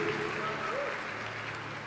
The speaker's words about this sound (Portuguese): Palmas aos nossos voluntários, que Deus abençoe.